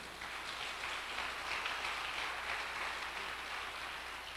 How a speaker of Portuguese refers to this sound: Você pode dar um aplauso a Jesus por isso ou não?